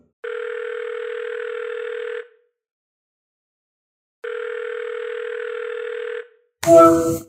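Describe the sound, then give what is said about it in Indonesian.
Two long, steady ringback tones, each about two seconds, separated by a two-second silence, then a brief burst of clatter as the call connects. “Nah, diangkat.”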